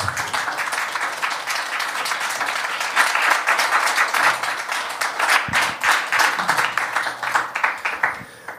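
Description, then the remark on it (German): Sustained audience applause at the close of a talk, a dense crackle of many hands clapping that swells slightly midway and carries on steadily throughout, with a faint hint of voices underneath. “Ja, Applaus ist total angebracht.”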